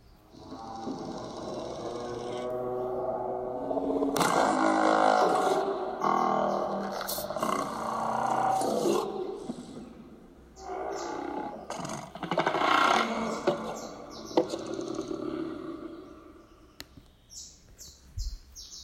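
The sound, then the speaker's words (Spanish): Strange, breathy vocalizations in a fictional creature language, from large-skulled beings whose vocal apparatus works like a wind instrument, with a hollow quality, rising and falling in long warbling phrases, loud, with a brief pause midway and a short burst near the end. “estos seres tienen el cráneo grande y, el sistema, su, aparato fonador puede funcionar como un instrumento de viento. Yo les voy a poner aquí más o menos cómo se escucha eh, esta lengua.”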